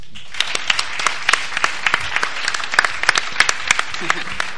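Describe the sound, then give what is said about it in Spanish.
A crowd applauds steadily, many hands clapping in a dense, continuous patter with sharper individual claps popping out, fairly loud and sustained throughout with no voices over it. “Así que pido un fuerte, un fuerte aplauso”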